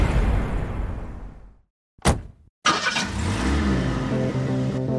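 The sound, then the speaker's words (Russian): A car engine idles down to silence, then a short starter whir kicks in and the engine catches, revving loudly before settling into a steady rumbling idle. “It's the universal sound of freedom. But everyone uses their car differently.”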